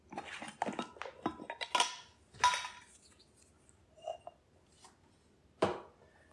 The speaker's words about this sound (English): right, we're whisking together here all the dry. Gently, because that cocoa powder wants to get into the air and make you cough. I'm gonna try not to do that.